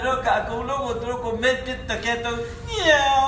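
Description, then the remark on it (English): A human voice imitates a cat, drawing out a few wavering, nasal meows with sliding pitch, ending on a rising, strained cry. “meow meow”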